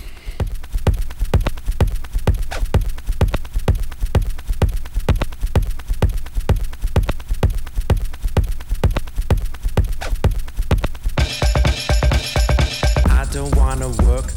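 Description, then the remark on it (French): A techno track, just released on the label Turbo Recordings, with a loud, clattering, off-kilter percussive beat over deep bass, joined near the end by bright, buzzing synth tones; no voices. “Donc il chante des conneries sur une rythmique complètement barré.”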